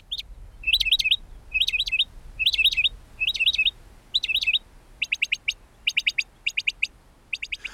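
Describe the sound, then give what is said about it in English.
A mockingbird sings, repeating a slurred, rising-falling phrase about six times, then switching to a rapid series of sharp, stuttering chirps in quick bursts. No one speaks. “Uh, aside from the amphibian that we're going to hear from, these are these are mockingbird sounds.”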